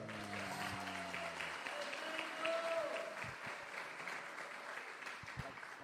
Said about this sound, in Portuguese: Muito obrigado. Aê. Pode aplaudir aí.